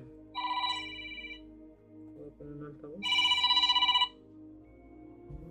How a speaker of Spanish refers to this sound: Ah, una llamada.